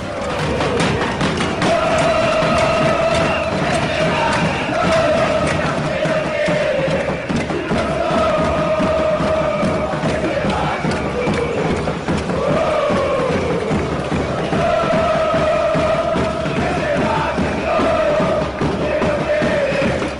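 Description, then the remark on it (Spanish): A large crowd shouts together in a loud, sustained roar, with rising chant-like swells of voices and dull thumps throughout, steady and dense for the whole stretch. “El estruendo de un grito colectivo quebró las frágiles bases de un gobierno carcomido internamente por la corrupción propia y las disputas entre sus líderes, propiciando su inestabilidad institucional y el descontento popular.”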